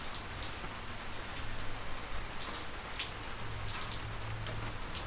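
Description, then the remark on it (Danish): Steady rain falls continuously, a dense wash of hiss with scattered individual drops pattering on a surface and a faint low hum underneath. No voices are heard. “Vi kender det alle sammen, øh, når vi hører en speciel, speciel lyd, for eksempel regnvejr.”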